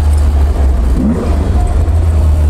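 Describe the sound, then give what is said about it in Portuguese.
An Alfa Romeo car's exhaust rumbles loud, a steady deep engine drone with slight rises as it revs, filling the whole clip with no one talking. “esse som, a proximidade dos pedais, esse som do escape.”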